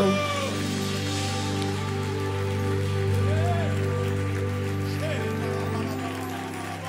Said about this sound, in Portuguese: Aplauda o Senhor com todas as tuas forças nessa manhã.